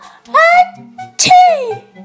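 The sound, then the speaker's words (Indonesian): A voice acts out an elephant's sneeze: a drawn-out, building "ah" followed by a sharp, breathy burst that trails off in a falling, trumpet-like wail, fairly loud. “Gajah pun bersin.”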